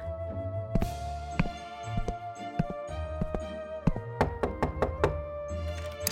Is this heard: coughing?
no